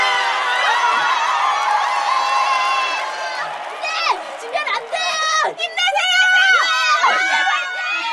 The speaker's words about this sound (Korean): 자, 이윽고 운동장 가운데 피구를 위한 필드가 그려지고 양 스탠드에 두 학교 학생들이 나뉘어 앉는다. 두 학교 교사들이 각각 자신의 필드에 들어가자 우레와 같은 환호성이 쏟아졌다. 와!